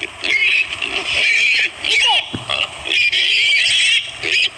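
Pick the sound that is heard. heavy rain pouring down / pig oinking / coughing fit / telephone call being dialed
pig oinking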